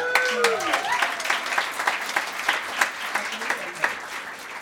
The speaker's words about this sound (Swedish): En till applåd